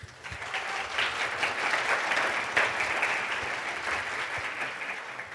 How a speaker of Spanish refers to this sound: Y bueno, un aplauso por favor.